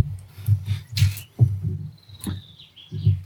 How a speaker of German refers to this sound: Ich wollte ganz kurz die Vögel im Hintergrund auch mal. Einfach für die Beruhigung Zuhörer.